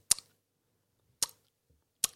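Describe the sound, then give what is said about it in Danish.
Three sharp, wet mouth clicks or lip smacks from a smacking tic, spaced about a second apart, fairly quiet, with near silence between them and no talking. “Det er også noget af det første, man bliver aflært i, det er, det er at smæske.”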